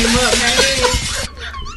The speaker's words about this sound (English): It's glass breaking everywhere